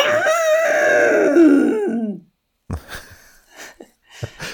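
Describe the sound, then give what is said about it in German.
A voice imitates a motorcycle pulling away: a sustained, buzzing engine drone of about two seconds that slides downward in pitch. After a short pause, someone starts talking. “Also so klingt das, wenn ein Motorrad anfährt.”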